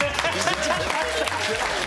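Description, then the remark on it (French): An audience breaks into steady, loud applause, a dense wash of clapping hands that continues throughout with a few voices mixed in. “On applaudit”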